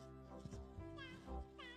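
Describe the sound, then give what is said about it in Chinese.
A cat meows a couple of times, short rising-and-falling mews over a steady low hum of background tones. “猫买了斑马的雨鞋，回家了。”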